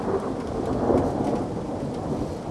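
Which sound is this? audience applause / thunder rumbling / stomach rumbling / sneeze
thunder rumbling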